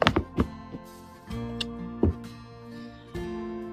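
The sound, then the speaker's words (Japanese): Hard clattering knocks as clothes on hangers are put back in place, a burst of quick taps at first, then scattered thuds with some ringing tones, fairly loud, with no talking. “あ、で、お洋服を元に戻さなきゃいけない。元に戻しましょう。ちょっとガチャガチャうるさいかもしれないんですが。”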